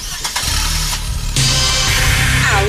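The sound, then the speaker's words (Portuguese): A car engine fires up and revs hard at high RPM to a loud, high-pitched roar, the whine climbing and sweeping upward near the end. Continuous, with no voices. “Alta rotação.”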